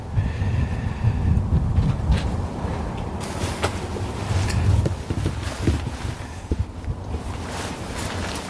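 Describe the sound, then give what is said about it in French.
Steady cold wind roars outdoors at around minus one degree, buffeting the microphone with a constant low rumble and occasional gusty bursts, fairly loud, with no one speaking. “C'est pas chaud aujourd'hui, hein? Ouais, ben le vent.”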